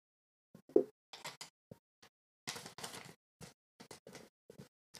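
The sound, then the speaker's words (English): Irregular bursts of crinkly paper rustling, fairly quiet, as sheets are handled and shuffled in short scratchy flurries with brief pauses between them. “Sorry for the noise of the paper.”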